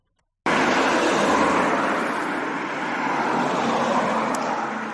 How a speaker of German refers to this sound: Äh, ich sitze hier irgendwie an der, äh, an der Überlandstraße. Wieso fahren hier die ganze Zeit Autos vorbei? Das ist ja, ist ja unmöglich.